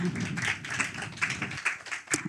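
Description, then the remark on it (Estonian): A crowd claps in a dense, steady patter of many hands, moderately loud and continuous for a couple of seconds before thinning out toward the end. “nii, väga hea, teeme aplausi”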